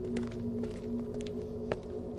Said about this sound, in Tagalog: Sa dami ng taong naglalakad sa paligid, hindi ko alam kung bakit ang ingay ng kanyang paglakad. Dinig na dinig ko ang tunog ng suot niyang pambahay na tsinelas na parang kinakaskas sa simento habang naglalakad. Sumasabay talaga siya sa paghakbang ko.